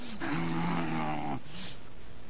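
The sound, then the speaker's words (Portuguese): A person makes a single low, rough growling noise with their voice, lasting just over a second, fairly loud, then fades into quiet. “O irmão fica pedindo para ter um carro, para ter uma casa, para ter um bom emprego, mas quando ele passa pelo irmão no corredor, ele rosna.”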